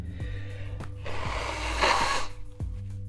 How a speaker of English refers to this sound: Sorry, sneezing. I mean, blowing my nose.